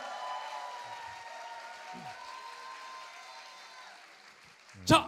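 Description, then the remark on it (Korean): A studio audience applauds to encourage a guest to sing a line from a musical, in a dense, steady patter that slowly tapers off, followed by a single sharp knock at the very end. “박수 한번 세요”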